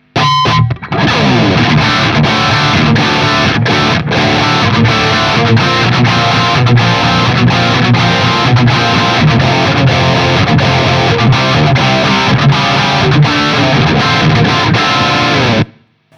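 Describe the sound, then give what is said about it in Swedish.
A heavily distorted electric guitar played through a high-gain amp with gain at eleven o'clock, bass at one o'clock, middle and treble at eleven, presence at eleven and resonance at ten; loud and dense with sustained saturated chords and rhythmic strums for about fifteen seconds, with no talking. “Vi börjar där någonstans och gainen är nu alltså klockan 11 och det är ganska mycket gain, eller vad tycker ni?”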